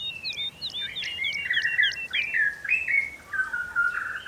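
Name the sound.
bird song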